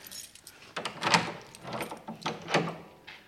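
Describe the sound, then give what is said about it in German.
Keys jingle and a lock clicks as a room door is unlocked and opened, a short run of bright metallic rattles with two sharper clacks standing out, no voices. “Ja, können Sie dieses Zimmer aufschließen?”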